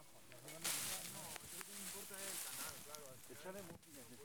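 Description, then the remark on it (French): Several voices talk over a steady rush of outdoor noise, with bursts of scraping and splashing as people clear debris early in the morning from the Sequia, the local river channel that supplies the community of Saint-Sid with water. “Ce que vous venez d'entendre, c'est le nettoyage de la Sequia, la rivière locale qui alimente la communauté en eau.”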